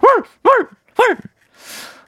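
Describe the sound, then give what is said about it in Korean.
Pet dogs bark and yelp excitedly, three sharp high-pitched yips about half a second apart, followed by a brief breathy, huffing burst. Fairly loud. “마스크에 마만 해도 산책 가는 줄 알고 난리가 나요. 산책 아니라고 잠깐 나갔다 오는 거라고 예, 강아지들이 참 오해가 많은 애들이에요.”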